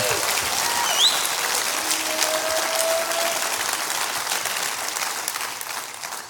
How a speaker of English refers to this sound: Come on, clap your hands real big.